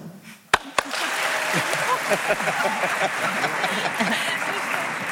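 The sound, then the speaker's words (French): A studio audience votes by applause against ending rankings such as work-duration and PISA rankings. After a couple of sharp claps it breaks into sustained applause, a dense, steady patter of many hands lasting several seconds with a murmur of voices mixed in. “Alors, par applaudissement, qui est contre”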